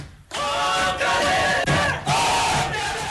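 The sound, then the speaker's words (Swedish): A large crowd roars in joy, as aired on SVT Sporten, after the Uppsala football club Sirius, a Superettan side, won promotion to the Allsvenskan for next season: a loud sustained wall of cheering and yelling with overlapping voices, swelling in a few surges across the few seconds. “En säsong som började med försiktig optimism och som slutade i rena glädjevrålet.”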